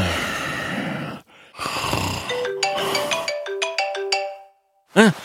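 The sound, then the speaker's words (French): Heavy breathing or snoring gives way to a melodic electronic alarm clock waking a sleeper with a quick run of bright, stepped tones, followed after a brief silence by a short startled vocal grunt. “Oh, sans mon alarme, j'aurais dormi au moins une heure de plus là.”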